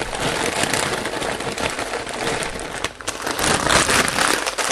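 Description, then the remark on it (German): A pot of water at a rolling boil for cooking Spätzle, a steady dense bubbling and crackling hiss that stays loud and continuous throughout, with no voices. “Ihr seht, das Wasser kocht”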